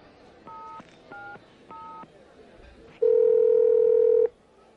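Three short telephone keypad beeps are dialed at an even pace, followed by a loud, steady telephone dial tone that holds for over a second before cutting off.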